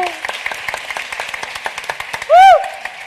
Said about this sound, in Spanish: Sí, un aplauso.